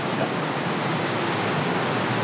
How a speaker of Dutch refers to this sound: Ja, je zult nu wel gaan horen het water, hè, wat, uh, door de.